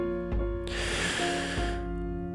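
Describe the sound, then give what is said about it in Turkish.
A single deep, drawn-out breath lasting about a second, heard from the other end of a telephone line, clear, with a steady tonal hum underneath and no one speaking. “En sonunda telefonun diğer ucundan gelen derin bir nefes sesi duydu ve herkesin merak ettiği esrarengiz adam konuşmaya karar verdi.”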